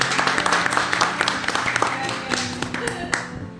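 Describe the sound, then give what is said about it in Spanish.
A live audience applauds, a dense run of hand claps with some sharper individual claps standing out, steady and fairly loud for a few seconds, with voices faintly mixed in. “Así que le aplaudimos, seca.”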